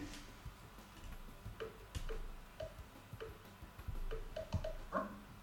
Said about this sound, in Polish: usłyszeć pierwsze kliknięcie, a następnie e, zjechać paluszkiem w dół do krótkiego kliknięcia i do takiego dźwięku, takiego w, jakby, jakby jakiejś takiej wibracji urządzenia czy coś takiego. Ja to teraz zaprezentuję, mam nadzieję, że mi to wyjdzie.